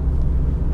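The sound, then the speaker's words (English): Steady, deep engine rumble from inside a moving car, a constant low drone at even loudness with a faint hiss above it and no talking. “giving me the phone because he's driving um, I'm sorry if the audio is bad.”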